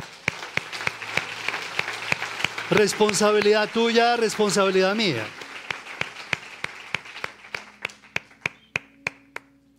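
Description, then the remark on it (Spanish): An audience applauds the Lord with sharp, steady claps throughout, while a man's voice rises loudly over the clapping in the middle. The applause thins to scattered individual claps near the end. “Un aplauso al Señor o no.”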